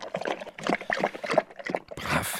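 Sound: dog lapping water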